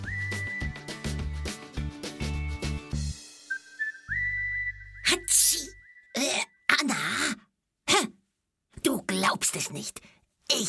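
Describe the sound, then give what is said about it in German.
A pack of African wild dogs sneezes and snorts loudly in a run of short, sharp, breathy bursts as they signal they are ready to start a hunt, with a steady whistling tone sounding earlier before the bursts begin. “Sie schnauben richtig laut. Ja, man kann eigentlich sagen, sie niesen, wenn sie bereit für die Jagd sind.”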